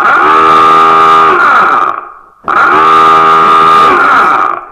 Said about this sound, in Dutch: Dat is het alarm van Dix Huis.